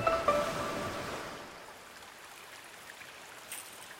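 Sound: babbling water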